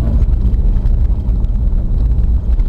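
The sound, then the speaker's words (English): A noisy car in need of repair passes by on a road, its engine a loud, rough low roar that stays steady throughout with no one talking over it. “And that's a car that needs some love.”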